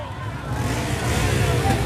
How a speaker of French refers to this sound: Les moteurs de la brigade motorisée Vrombis et les policiers avancent boucliers à la main pour disperser les manifestants à coups de matraque et de gaz lacrymogène.